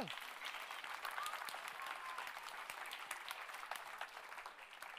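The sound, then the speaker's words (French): A church audience applauds the word of God during a sermon, many hands clapping steadily in a dense, continuous patter for the full few seconds, with no one speaking over it. “Est-ce qu'on peut applaudir la parole de Dieu”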